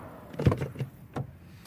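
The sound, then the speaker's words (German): A car trunk lid swings shut with a solid, low thump, followed by a couple of quieter mechanical clicks and rattles as it settles, with no talking. “Also machen wir wieder zu und gucken mal ein Stück weiter vorne, wie es da aussieht.”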